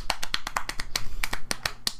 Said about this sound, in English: That's the sound of clapping.